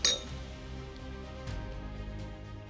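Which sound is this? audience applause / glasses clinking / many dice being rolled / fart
glasses clinking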